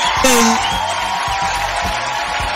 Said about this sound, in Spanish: Aplausos para ti. Bien.